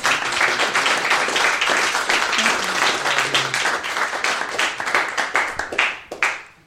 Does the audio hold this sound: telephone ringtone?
no